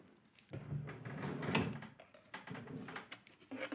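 Objects shuffle and clatter inside a drawer as a woman searches through it for dates and photos, with a series of irregular knocks and scrapes and one louder bump midway, continuing unevenly without any voices.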